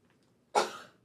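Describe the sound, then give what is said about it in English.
A single sharp sneeze bursts out of near silence, fairly loud, with a breathy hiss that trails off quickly. No one speaks. “Bless you.”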